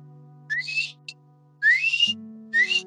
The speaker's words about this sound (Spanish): El de los silbatitos estaba chido.